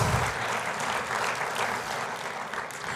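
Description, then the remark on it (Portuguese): Sustained audience applause given for Jesus during a sermon, a dense crackle of many hands clapping at once, steady and loud throughout with no voices rising above it. “Dê para Jesus mais uma forte salva de palmas.”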